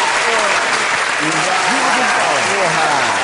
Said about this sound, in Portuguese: Uma salva de palmas, peço até pra técnica colocar uma salva de palmas e. Viva! O Dude Palmas!